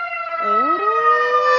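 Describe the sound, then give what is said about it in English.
A hand-crank fire engine siren wails loudly, its pitch dipping low, then winding back up into a steady, sustained high tone with rich harmonics. No one speaks. “In Chicago, every uh, fire engine has a hand crank siren.”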